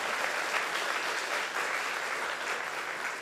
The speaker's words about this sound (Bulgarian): Така че пляскайте и трябва да смеете супер силно. А така, браво!